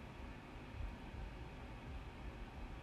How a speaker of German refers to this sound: Ja, okay. Ich sehe hier auf Englisch solche Wellen angezeigt, wenn ich was sage. Und wenn ich nichts sage, kommen die. Heißt, man hört dieses scheiß Rauschen.